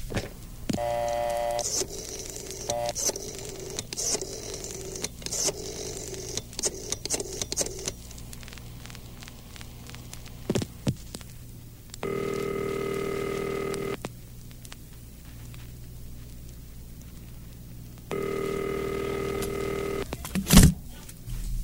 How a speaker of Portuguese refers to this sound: Em dado momento, eu não pude mais me conter e apanhei o telefone.